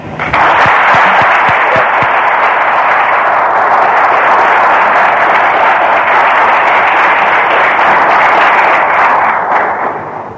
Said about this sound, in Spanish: Eh, desde ya agradecemos al profesor que, que se haya brindado para nosotros y esperamos, o sea, y lo recibimos también con un aplauso de agradecimiento para todos aquellos que tratan de esclarecer un tema tan difícil